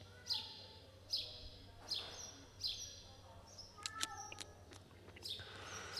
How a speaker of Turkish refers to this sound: Hala bak reis arkadan miyavlıyor şerefsiz.